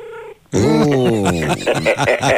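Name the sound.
cat meowing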